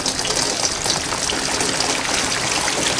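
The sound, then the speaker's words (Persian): Heavy rain pours down in a steady, dense rush, a loud continuous hiss of water that holds even throughout with no pauses and no voices. “وقتی آرزو میکنه که بارون بباره و ظرفهای کثیفش رو بشوره همون لحظه بارون میاد ای آسمان بی ستاره آیا چنان باران رحمتی هست که این ظرفهای چرب و چیل مرا بشوید؟”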